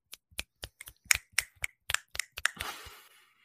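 A short round of soft, polite golf clapping: about a dozen light, crisp claps at an uneven pace, closing with a brief quicker flurry before fading. No one speaks.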